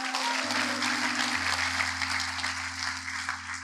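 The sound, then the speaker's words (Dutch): A crowd claps steadily in applause for the media team, a dense wash of many hands for several seconds, with a low electrical hum underneath and no voices. “Zullen we toch een applaus geven voor het mediateam?”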